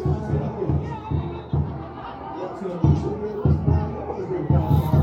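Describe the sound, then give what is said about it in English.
A large crowd of home fans roars and cheers after a student sneaks onto the track and starts dancing, in a dense, continuous wash of voices, swelling in repeated loud surges with a brief dip midway before rising again. “So one of the students is absolutely, you know, set the crowd off and they love it.”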